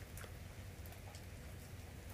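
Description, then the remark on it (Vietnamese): Rain falls at midnight near the sea, a soft continuous hiss with faint scattered patters and a low rumble beneath, heard alone without voices at a quiet, even level. “khá là yên bình cảnh nửa đêm mở cửa ngồi nhìn ngồi nhìn ra trời mưa ở gần biển”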